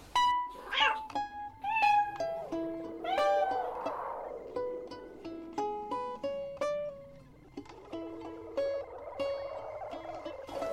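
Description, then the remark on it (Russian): A cat meows again and again, fairly loud, a string of drawn-out, rising and falling cries with hardly a pause between them for about ten seconds. “Лапками брюхо поглаживает, на кошачьем языке приговаривает.”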